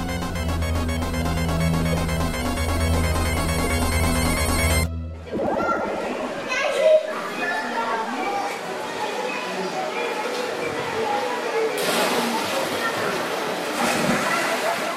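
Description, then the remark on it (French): A steady electronic ringing tone plays for several seconds, then cuts off and gives way to busy swimming pool ambience full of continuous sloshing and splashing water. “qu'est-ce qu'on fout dans une piscine là Allez, on replonge.”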